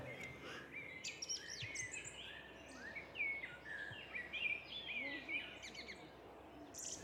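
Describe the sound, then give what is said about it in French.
Several birds sing and chirp continuously outdoors along a long path on a grey day, overlapping trills and whistles over a steady background hush of wind, with no voices. “J'entends des oiseaux.”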